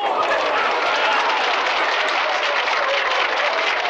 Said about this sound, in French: Merci, merci, merci pour tous ces applaudissements, vos baisers et vos mains qui font des cœurs.